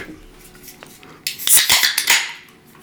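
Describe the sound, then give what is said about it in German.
A can of energy drink is cracked open: a sharp metallic snap followed by a bright, fizzing hiss that lingers for over a second before fading, with no voices. “Das, was ihr gerade gehört habt, war eine ehrliche Rakete.”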